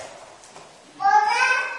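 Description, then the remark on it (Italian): After a quiet moment of faint room noise, a young child lets out a high-pitched, drawn-out vocal sound, fairly loud, lasting under a second. “hai visto che ha detto pure il bambino, così è”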